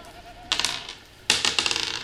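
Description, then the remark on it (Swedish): A goat bleats twice outdoors, each call a loud, quavering, rapidly pulsing cry lasting under a second, with a short pause between them and no talking. “Mm, som en get, get som ropar där ute.”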